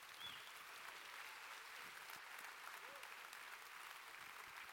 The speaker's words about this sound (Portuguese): Quem pode dar mais um aplauso ao Senhor Jesus dessa manhã?